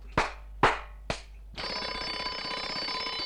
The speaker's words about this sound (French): Une sonnerie de téléphone me réveilla. J'arrêtais le réveil. Il ne marquait pas l'heure, mais le temps de sonnerie, 35 secondes pour moi, c'est la seule chose qui me réveilla.